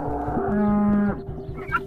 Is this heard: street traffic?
no